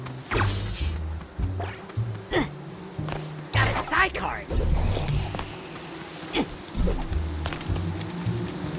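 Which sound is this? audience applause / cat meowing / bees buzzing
bees buzzing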